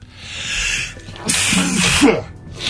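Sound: sneeze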